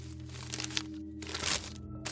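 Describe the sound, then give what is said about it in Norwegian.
Crinkling and rustling of paper wrapping as it is handled and unfolded, in irregular bursts of crisp crackles over a low steady hum, with no one talking. The paper wrapped Roald Amundsen's navel stump and has "Roalds navle" written on it in pencil. “Den var pakket inn i papir, og på papiret hadde noen skrevet med blyant Roalds navle.”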